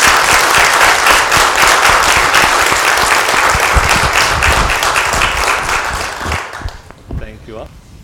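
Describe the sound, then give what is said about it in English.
A church audience breaks into sustained applause for its confirmands, welcoming them into the audience: dense steady clapping from many hands that holds loud for about six seconds, then thins out and fades as a voice begins speaking. “Uh, but now let us applaud our confirmands and welcome them to the congregation.”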